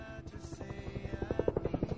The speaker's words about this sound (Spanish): Nuestro entrañable helicóptero ya es un espectador de lujo de este Motherwell Celtic, porque estamos en el minuto 87 y el Celtic sigue venciendo por 0-1.